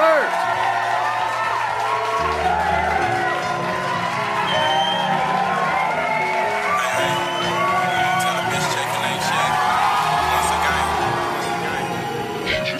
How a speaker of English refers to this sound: Please help me in giving them a round of applause.